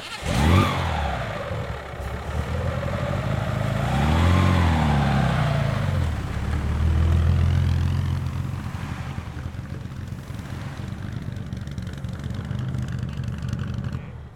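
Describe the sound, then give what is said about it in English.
A 1938 Alfa Romeo vintage racing car engine roars loudly, its pitch rising and falling as it revs and passes by, then settles into a steady rumbling drone with no voices. “Yes, that's the 1938 Alfa.”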